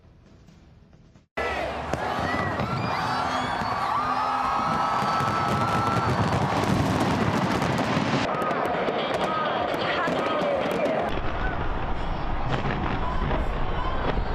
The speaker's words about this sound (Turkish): Yüz binlerce kişi meydanlara akın etti. Lazer ve havai fişek gösterileri eşliğinde yeni yılı coşkuyla kutladı.